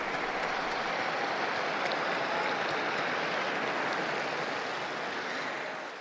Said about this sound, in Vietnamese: Và Đức Thánh Cha mời các khách hành hương tại quảng trường vỗ tay để chúc mừng những người mẹ.